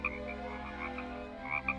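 animal, frog croaking

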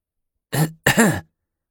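human body sound, a cough

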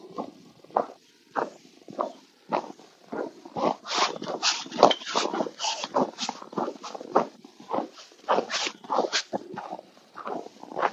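nature, footsteps crunching on snow

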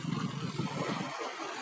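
nature, sea waves

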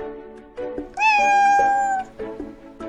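animal, cat meowing

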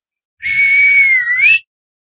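human body sound, loud finger whistle

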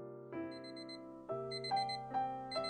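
household object, alarm clock ringing

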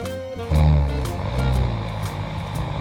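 sound effect, giant snoring

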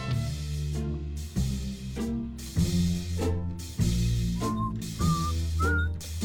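human body sound, whistling

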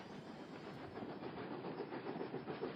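vehicle, train running on rails

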